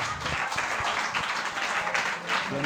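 Dense applause from a crowd for the winner of a number draw fills the moment, a steady wash of many hands clapping at once, loud and sustained, with a few voices faintly mixed in.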